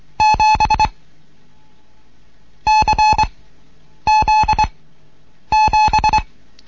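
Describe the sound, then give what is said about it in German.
Morse code beeps for the letters C and Z and the number 7, in four separate bursts, each a quick run of loud, clear tones with short and long elements, separated by brief silences and no voices. “Die Zeichen klingen alle drei etwas anders.”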